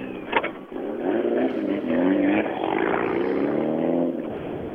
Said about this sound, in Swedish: Ja, ytterligare en eh, bil som kommer ner som är rätt skönt att se i målet som haft struligt.